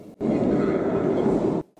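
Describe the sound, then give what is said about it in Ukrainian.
Ambience at Pivdennyi Vokzal metro station with a passing train: a loud, steady rumble with a faint hum that starts abruptly, holds for about a second and a half, then cuts off. “Станція метро Південний вокзал.”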